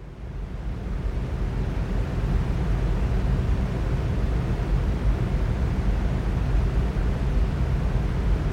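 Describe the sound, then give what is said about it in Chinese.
Electric fan noise used as white noise for sleep fades in over the first second, then holds as a steady, even whoosh of airy rushing with a deep low rumble and a faint motor hum. No voices. “还有比如特别适合沉睡的电风扇声音。”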